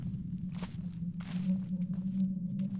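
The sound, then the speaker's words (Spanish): A couple of soft, light footsteps crunch from the right, inside a forest at the end of a trail, over a low, steady engine-like hum that runs throughout; no one speaks. “Aunado a ello, escuché pasos ligeros que venían de mi derecha desde el interior del bosque.”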